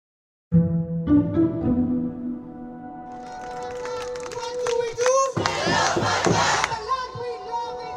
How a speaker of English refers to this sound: This is the sound of a protest calling for a permanent ceasefire in Gaza. Not in Washington, Istanbul, or London, where similar rallies have been organized. Instead, it's in Dubai, a city that rarely sees such protests.